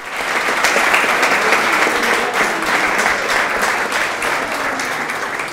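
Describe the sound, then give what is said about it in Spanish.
An audience applauds loudly for a group of children, many hands clapping in a dense, steady patter that holds for about five seconds without a break. No voices are heard over it. “Démosles un aplauso a todos estos hermosos niños.”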